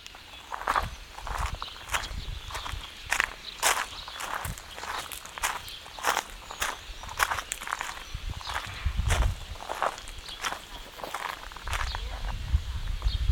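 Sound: footsteps walking outdoors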